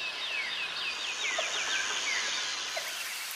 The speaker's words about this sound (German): Ja, hört man auch schon, ne? Gerade wieder diese vielen unterschiedlichen Tierstimmen. Wir können es in dieser Episode wirklich nicht oft genug sagen. Das ist eine ungeheure Artenvielfalt hier. Allein im Nebelwald Monteverde, da leben 400 Vogelarten,